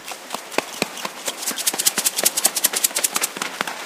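Homemade instruments (toilet-paper-roll rain sticks, flowerpot drums and rubber guitars) clatter and tap in a busy, irregular rhythm of dense clicks and knocks, moderately loud, with no voices.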